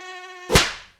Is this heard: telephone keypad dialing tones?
no